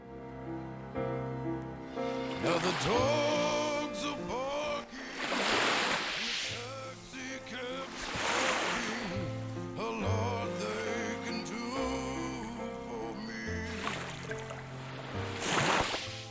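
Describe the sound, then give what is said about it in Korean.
Ocean waves wash ashore in steady surges every few seconds, each swelling into a broad hiss and receding, layered over a soft, sustained musical backdrop with no talking. “그렇게 파도에 밀려 떠내려가는 그녀의 사진을 보며 제 눈가에 눈물이 촉촉히 젖어들고 있었습니다.”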